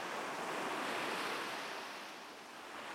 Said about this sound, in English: If that's the case, I'll be respectful of your sleep and play us out with the sounds of gentle waves finding shore.